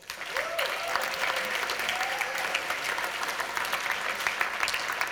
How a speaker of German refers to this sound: Okay, da vorne auf der Ecke, da haben wir schon einen. Gebt ihm mal einen kleinen Applaus.